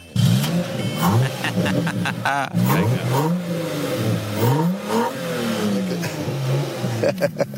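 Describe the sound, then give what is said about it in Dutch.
A car engine is started and revs repeatedly, its pitch climbing and falling in several loud surges, with people's voices mixed in over the engine noise. “Hein, kun, je, kun je hem starten nu eigenlijk?”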